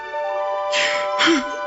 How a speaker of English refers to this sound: Bless you, sir.